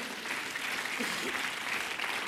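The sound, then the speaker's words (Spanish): An audience applauds loudly for the Lord during a church sermon, a dense, steady wash of many hands clapping at once, sustained without a break. “Apláudele fuerte al Señor, por favor.”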